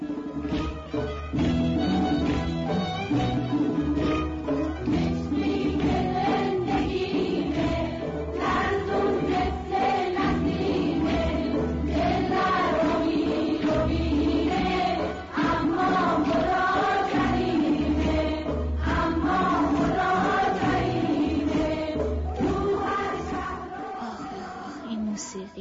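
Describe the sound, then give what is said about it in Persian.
A girls' choir sings steadily over instrumental backing, played from a Sony cassette tape with an orange label, the sound muffled and lo-fi with no high treble, playing continuously and fairly loud throughout. “یه نوار کاست سونی لیبل نارنجی بود که پدرم با خط خوش روش نوشته بود گروه کره دختران حالا ببینم کدوم یکی از قطعاتش رو میتونم الان بشنوم”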